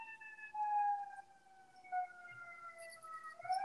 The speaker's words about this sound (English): Cue the sirens. Cue the sirens.